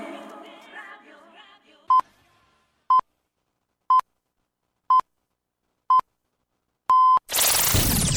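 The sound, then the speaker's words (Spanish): An alarm clock beeping as the first sound of the morning radio show Madrugando con estilo on Radio Insular, Fuerteventura: six clear electronic tones, one per second, the last held longer, then a sudden loud burst of noise. Faint murmuring fades out just before the beeps. “Este es el primer sonido de la mañana. Este despertador suena bien.”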